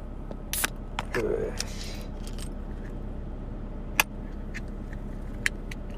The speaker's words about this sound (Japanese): 深爪なので、鍵とか出さないとこプルトップ開けらんないんだな。